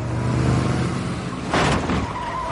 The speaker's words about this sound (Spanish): Tira unos cubos de basura con la parte trasera. Acelera y tira otro cubo de basura con un lateral.